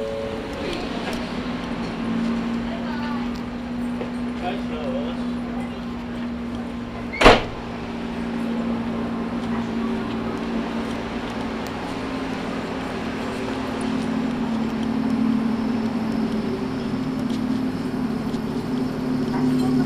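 A Hakone Tozan Railway mountain train in Japan, running from Hakone-Yumoto to Ohiradai, runs with a steady low motor hum and rumbling wheels, broken by one sharp door thud partway through before the even running sound carries on.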